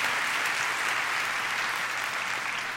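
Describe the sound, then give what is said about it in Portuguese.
An audience claps steadily, a dense, crackling wash of many hands that holds at an even loudness for the whole few seconds, with no voices standing out. “pode dar salva de palmas.”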